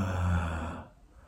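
A single low, throaty rattle, a deliberate vocal râle made during a guided sound exercise, with a rough, rattling edge, loud at first, then trailing off into a breathy fade after about a second.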